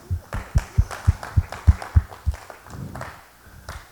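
A single person claps steadily, about eight sharp claps at an even pace, fairly loud, then the clapping stops and only a quieter, scattered background remains.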